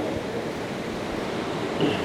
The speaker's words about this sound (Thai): ตอนนี้ที่เรานั่งเรียนกันอยู่นะครับฝนตกหนักพอสมควร